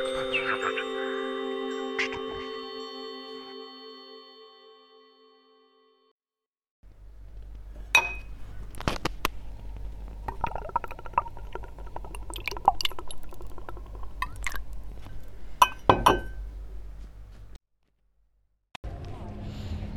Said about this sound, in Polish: To, co słyszeliście na samym początku, to jest dźwięk wódeczki wlewanej do szklaneczki.